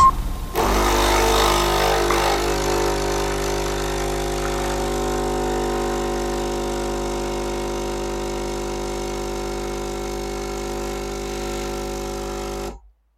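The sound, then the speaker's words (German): A capsule coffee machine brews a ristretto, squeezing every drop from the last capsule: its pump kicks in abruptly and drones with a steady, loud, low buzzing hum for about twelve seconds before cutting off, with no talking. “Ähm, nein, das ist ein Ristretto. Und ich quetsche gerade jeden Tropfen aus der Kapsel, denn es ist die letzte.”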